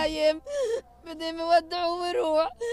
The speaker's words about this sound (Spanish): Los medios nos bombardean a diario con imágenes de mujeres descompuestas sobre las ataúdes de sus hijos, besando sus rostros aún jóvenes. Y de fondo, un llanto persistente.